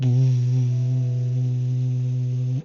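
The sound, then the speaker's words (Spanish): A recorded low, droning underwater 'Bloop' tone, captured in the depths of the sea, holds steady and fairly loud for over two seconds, buzzy with layered overtones, then cuts off abruptly. No voices are present. “porque esos sonidos, ¿cachai? Que fueron captados a la recontra chucha del fondo del mar no deberían pasar, pues, ¿cachai?”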